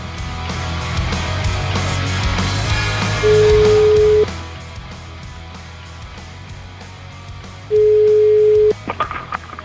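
A steady telephone ringback tone sounds twice while a caller is being redialed, each tone about a second long with a pause between, over a low background hum and faint noise.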